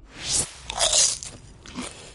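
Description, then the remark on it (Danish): Crisp crunching of popcorn being chewed, a few loud bites with crackly chewing between them, no talking. “Jep, så er vi i gang, og det betyder, at der er fodbold og popcorn.”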